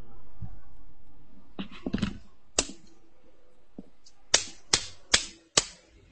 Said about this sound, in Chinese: 要敲几下呀？ 啦嚓嚓哩嚓嚓，你就看着敲呗，快点的。 就就六下对吧？